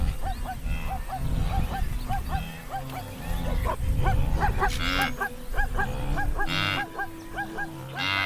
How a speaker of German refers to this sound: Das zum Schluss war noch einmal ein Zebra. Vermutlich eine Zebrastute, die ihr Fohlen in dieser Masse aus Tieren sucht. Weil jedes Tier eine einzigartige Stimme hat, erkennen sie einander auch über längere Distanzen.